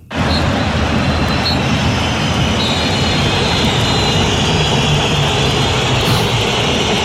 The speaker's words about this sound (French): Et écoutez la bronca qui s'en est suivie quelques secondes plus tard, elle était euh, principalement pour lui, pour Vitinha.